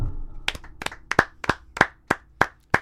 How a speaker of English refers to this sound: Can we get a a couple claps for the clapper?